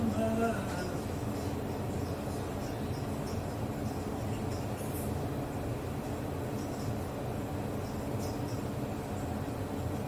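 Steady, continuous rumble of a Sydney city tram on the city's main street, on a line opened in 2020, heard while riding aboard, with a low mechanical drone, a brief tonal whine at the start and faint rattles and clicks throughout.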